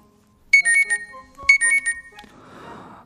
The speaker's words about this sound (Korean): 저는 몰랐습니다. 제가 그렇게 알람 소리를 못 듣는 사람인 줄. 그도 그럴 게 원래 집에서는요.